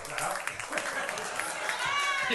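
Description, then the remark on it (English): An audience claps steadily, a dense crackling patter of many hands that stays fairly even throughout, with a voice briefly rising over the applause near the end. “Don't, clap.”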